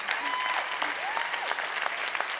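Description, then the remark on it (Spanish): An audience applauds steadily, a dense, even patter of many hands clapping at once without pause, with faint whistles or cheers rising briefly above the clapping. “aplaudir, hágalo bien.”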